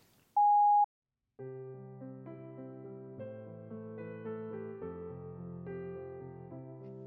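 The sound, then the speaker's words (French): A single short, steady electronic beep like an answering machine tone sounds loudly, followed by a brief silence and then sustained instrumental music with layered chords. “Veuillez laisser votre message après le bip.”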